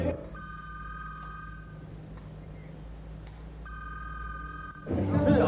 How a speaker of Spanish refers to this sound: En una casa suena el teléfono.